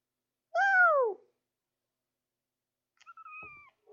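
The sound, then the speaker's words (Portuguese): A cat meows twice, a clear, loud meow with a falling pitch, then after a few seconds of silence a quieter, flatter second meow, with no talking. “Deixa eu ver, eu vou tentar miar.”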